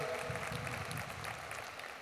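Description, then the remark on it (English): Steady audience applause: many hands clapping in a dense, even patter that holds at a constant level for the full two seconds, with no voices breaking through. The audience is applauding the groundbreaking of the Hitchcock Center housing in Cuyahoga County, which will provide housing assistance for moms experiencing addiction. “You can clap on that, please.”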